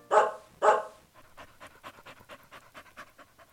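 A dog pants quickly and rhythmically, short breaths in steady succession, preceded by two loud, sharp vocal bursts at the start.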